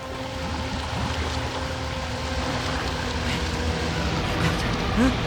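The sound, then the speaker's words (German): A motorboat's engine drones steadily across the water as it approaches swimmers from behind at dusk in light rain, a constant low hum mixed with rushing wash and spray, loud throughout. “hinter uns! Motorboot.”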